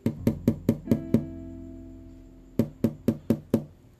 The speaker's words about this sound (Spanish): Era una tarde normal. Yo solo me había encerrado en mi cuarto. Mamá llegó a tocar la puerta. Raras veces yo echaba llave, ¿sabes?